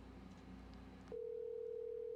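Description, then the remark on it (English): A steady telephone dial tone of an outgoing call cuts in about halfway and holds without a break, clear and fairly loud, after a short stretch of low background noise. “This will be our first try and shit, first call.”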